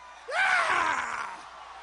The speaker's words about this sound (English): At the end of his um, uh, speech, he I guess did something that was kind of like a scream or a yeehaw or something.